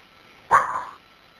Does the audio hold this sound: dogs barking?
yes